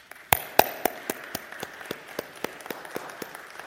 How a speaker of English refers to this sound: I know she's not looking for this, but can we give her a round of applause for her efforts?